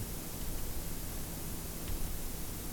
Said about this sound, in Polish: Dobrze, włączam start. I tak jest na kasetę żelazową. A teraz Nacisnę przełącznik na kasetę chromową i zobaczymy, że zmniejszy się poziom szumu. Trochę się zmniejszył.